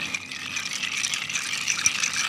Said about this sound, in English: I'm just going to crack the ice and stir this cocktail.